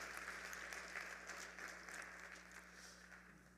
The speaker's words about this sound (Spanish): Les saludamos con un aplauso desde Cántico Nuevo.